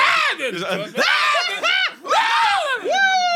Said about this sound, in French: on va tout couper les cris.